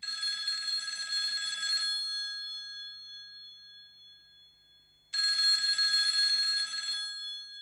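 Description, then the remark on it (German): An old-fashioned telephone bell rings in two loud, rattling bursts of about two seconds each, separated by a few seconds of lingering ring tone, coming from the side room of the Roter Ochse, with no voices. “Ein altmodischer Klingelton ertönte zeitversetzt zum Geräusch in seinem Lautsprecher.”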